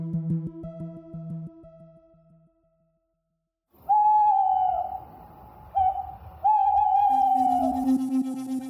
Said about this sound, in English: Now, turn up the sound and turn off the lights. The owl has stories to tell.